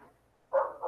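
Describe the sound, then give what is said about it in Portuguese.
A dog barks twice in quick succession, fairly loud, with a moment of quiet before the first bark and no voices. “Tem um cachorro latindo, vai ter que, né, lidar com isso.”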